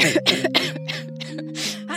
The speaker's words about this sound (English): But when she sliced off the top, she began to cough